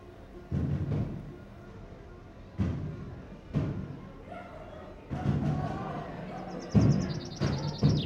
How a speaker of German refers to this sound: Rings um Campos krachen die Kanonenschläge